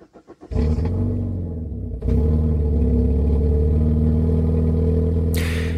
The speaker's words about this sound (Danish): fra og med i går er det blevet ulovligt at holde i tomgang i mere end et minut